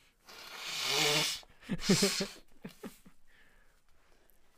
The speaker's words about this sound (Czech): Pardon, já se vysmrkám jenom.